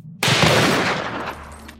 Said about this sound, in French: John McAfee se lève, saisit une de ses armes à feu et tire à bout portant sur son ordinateur.